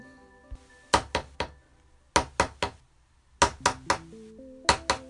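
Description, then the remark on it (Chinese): Four bursts of three quick, sharp hammer blows driving small nails into old wood to make a chair, crisp woody knocks in a steady rhythm, with soft tonal music underneath and no talking. “就这样啊，小兔子准备了一把锤子、一把小锯子、一些小钉子。”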